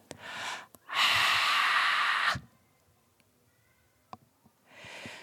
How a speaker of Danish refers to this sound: Og så midt i udåndingen, så skubber jeg min nederstøtte og min øverstøtte i, og så skubber jeg luften ud, og så bliver det lydløst. Det lyder sådan her.